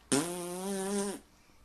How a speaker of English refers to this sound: What I want to know is why that only comes through one uh, speaker. the fart?